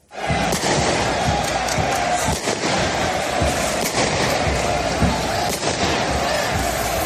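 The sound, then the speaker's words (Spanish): A dense, loud crowd roars and shouts continuously while sharp bangs and thuds break through at irregular moments, as football fans brawl violently before a match. “La previa quedó empañada por, por violencia. La violencia que en ocasiones eh, impregna un partido de fútbol.”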